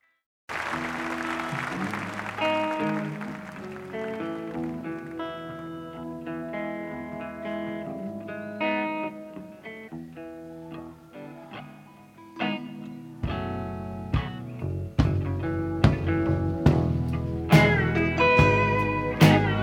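A live concert performance of a song opens with sustained, ringing instrumental chords, then a full band with steady drum hits kicks in partway through, growing louder and fuller.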